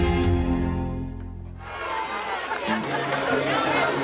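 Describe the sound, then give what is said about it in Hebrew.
A sustained musical tone fades out, giving way to a steady hubbub of crowd chatter at a concert in Athens in the 2000s, many overlapping voices with faint clinks of drink glasses mixed into the babble. “ברקע כל קולות הקהל ושיקשו כוסות המשקה”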